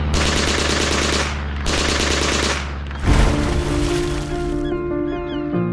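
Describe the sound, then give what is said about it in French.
Loud bursts of rapid machine gun fire from British aircraft strafing the surfaced German submarine U-1206 rattle twice in sustained volleys, followed by a heavy impact and lingering metallic ringing tones. “Quand le U-1206 sort de l'eau, à ce moment-là, les avions britanniques nous repèrent, racontera plus tard Karl Adolf Schlitt. Et le sous-marin se fait canarder.”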